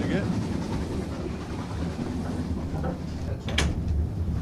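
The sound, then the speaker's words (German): Loud, steady rumbling and rattling of a moving, unstable train heard while walking through the passage between carriages, with a sharp metallic clack near the end and faint voices in the background. “Zwischen den Waggons gerade lang gegangen und ich sag mal so, ich wäre fast, ich, ich war schon tot.”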